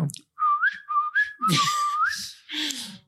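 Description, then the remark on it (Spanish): A person whistles a short, repeated imitation of a blue tit's call, three rising-and-falling high notes in a quick rhythm, mixed with breathy hiss and a low voiced tone near the end. “Sabes cómo hace la mayarenga, ¿no? Piu, piu, piu.”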